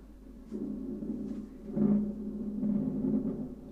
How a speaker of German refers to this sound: Hört ihr das? Das ist Donner.